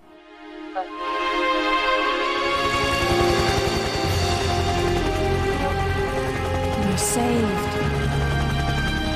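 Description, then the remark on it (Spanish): A helicopter arrives in a video game cutscene, its rotor thumping in a steady low beat that swells within the first two seconds and stays loud, layered over a dense, sustained dramatic score. “Bueno, mira, este es un poquito nada más para que se den una idea de cómo se escucha este, cuando, cuando llega el helicóptero, ahí va.”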